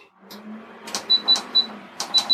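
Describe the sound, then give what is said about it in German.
A kitchen stove in a small kitchen being switched on to cook pearl barley in cold water: a quick series of sharp clicks, each paired with a short high electronic beep, repeating irregularly with a low hum underneath. “Und dann so, geht auch schon der Herd an und wir können es einfach mal starten.”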